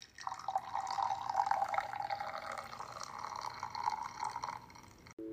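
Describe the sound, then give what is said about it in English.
Hot chocolate is poured steadily into a cup for about five seconds, a continuous splashing trickle that stops abruptly, with no talking. “Let me just pour a little bit of hot chocolate.”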